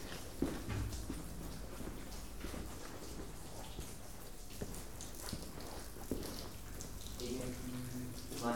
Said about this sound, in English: beautiful displays with small water streams. You probably hear it. Beautiful.